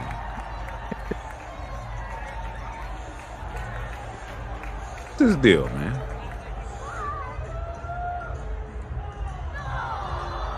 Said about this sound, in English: Hey, crowd not pleased. They wrapped him up like a like a ham and cheese, man. Threw him in the garbage literally threw him in the garbage.